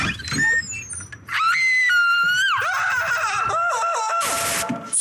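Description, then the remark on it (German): A woman shrieks with excitement in long, high, wavering screams that rise and fall, loud, with brief rustling between bursts and no speech, in an advertisement for the online shoe and fashion retailer Zalando. “Zumindest bei mir in Erinnerung blieben vor allem die Schreie und das Wort Hölle.”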